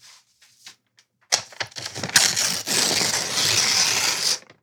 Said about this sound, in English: This is the sound of ripping up past due bills.